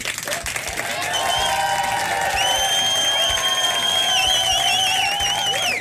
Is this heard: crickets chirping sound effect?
no